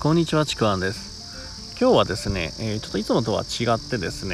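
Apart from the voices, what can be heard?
insects chirping outdoors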